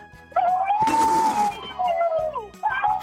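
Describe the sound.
On Park Myung-soo's Radio Show, a person imitates an elephant's trumpeting call with a loud, sustained, wavering high-pitched wail that rises, holds, then bends downward before a shorter second burst.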